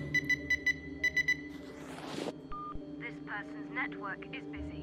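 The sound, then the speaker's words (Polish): A rapid sequence of about six short, bright mobile phone keypad beeps, evenly spaced as a number is dialed, followed by a rush of noise and then a low murmur of background voices and ambience. “Piękne tutaj jak przykłada telefon do ucha, wszystko fajnie jest zrobione, a niestety ten numer, numer jest niedostępny.”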